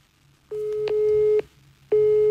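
A mobile phone busy tone after the called person rejected the call: steady electronic beeps, each lasting nearly a second, repeating with short gaps, clear, with no one speaking.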